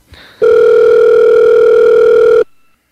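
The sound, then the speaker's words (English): A loud, steady telephone tone holds for about two seconds and then cuts off abruptly, with no voices over it, as a phone call is placed to someone. “let's see if we can get old Johnny D on the phone here”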